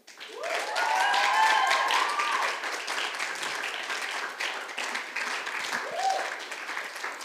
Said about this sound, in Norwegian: og hele teamet, gi dem en skikkelig applaus.